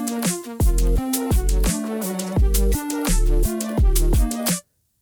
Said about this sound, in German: Das ist unser Intro.